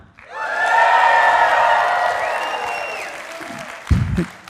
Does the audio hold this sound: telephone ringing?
no